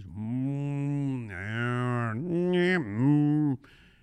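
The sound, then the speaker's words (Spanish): A human voice imitates a cow mooing, with long, drawn-out, wavering lows held for about three and a half seconds, loud, then cut off abruptly. “El muchacho se pone a correr enfrente de ellos, se les escapa la policía y se mete en un corral donde había muchas vacas.”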